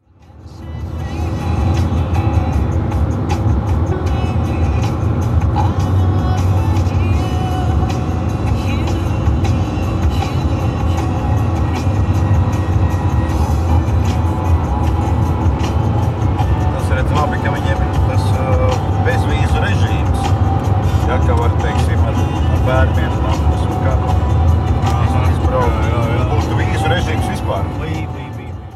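A car drives steadily along a road on the way to Ukraine, its engine and tyre rumble a constant, loud low drone that holds unbroken for the whole stretch, as if heard from inside the vehicle.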